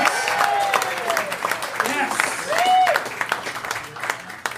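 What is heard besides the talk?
audience applause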